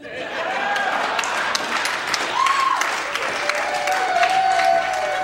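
An audience applauds steadily after a live song performance, a dense wash of many hands clapping at an even loudness throughout, with a few faint whistles and cheers rising over it.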